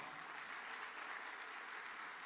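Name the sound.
audience clapping hands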